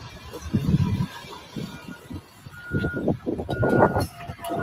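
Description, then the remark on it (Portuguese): A Land Rover car pulls up with a low engine rumble, and a few steady electronic reversing beeps sound over the motor noise. “O carro aí da, da Land Rover.”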